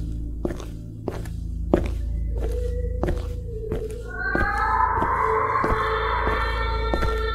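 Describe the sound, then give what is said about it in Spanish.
Steady footsteps of a person walking down a hallway in the dark at an even pace, about a dozen sharp thuds over a low droning rumble, with eerie sustained wailing tones rising behind them halfway through. No one speaks. “Me levanté y caminé en el pasillo mientras escuchaba alaridos.”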